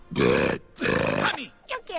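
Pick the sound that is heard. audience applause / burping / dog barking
burping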